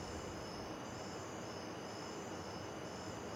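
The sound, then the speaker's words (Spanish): A steady, rushing roar of a waterfall fills the background, with a continuous high chirring of crickets layered on top, unchanging throughout, recorded from a house terrace on a calm, windless night at the start of the dry season; no one speaks. “Se oye la catarata en el fondo, los grillos y es porque ya estamos entrando en la época seca y justamente en este tiempo de transición todavía no han llegado los vientos, entonces la noche es serena.”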